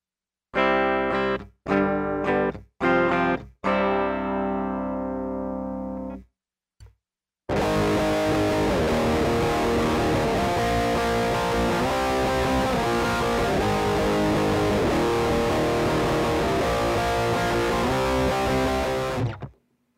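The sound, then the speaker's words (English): An active Schecter electric guitar through an MT15 amp plays a few clean, ringing chords with short pauses between them, then switches to a loud, heavily distorted riff that churns steadily until the end. No one speaks. “So here we have the active Schecter going through the MT15.”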